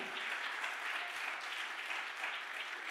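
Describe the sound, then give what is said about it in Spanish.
An audience breaks into loud, sustained applause, a dense crackle of many hands clapping steadily without letup for the whole stretch, with no voices standing out above it. “Vamos, dale otro aplauso fuerte.”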